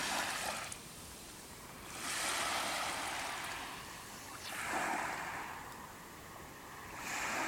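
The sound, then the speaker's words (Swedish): Ocean waves roll in and wash up on the shore in slow, repeating surges, each swell building to a broad hiss before receding. No voices, just steady surf. “Stå stilla och hör vågornas brus.”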